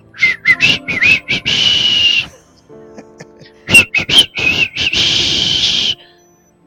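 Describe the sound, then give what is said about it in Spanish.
People whistle in two loud bursts, each a run of quick, choppy high notes that ends in a long, breathy, hissing held tone. A short quiet pause separates the bursts. “Bueno, y si la pones y, sil- y silbamos al fondo para distorsionar o para confundir a los algoritmos, weón.”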